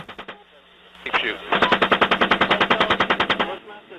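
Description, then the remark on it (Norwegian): A rapid, steady burst of heavy machine gun fire from an American helicopter during an attack in Iraq in 2007, around twenty evenly spaced loud shots, preceded by a few scattered shots and a brief muffled, radio-like voice. “Her hører du skuddene fra et amerikansk helikopterangrep utført i Irak i 2007.”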